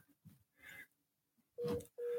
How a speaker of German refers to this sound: Und ähm, ja, piept hier noch mal irgendwas? Ja, ich glaube, das ist die, die Verbindung, aber na,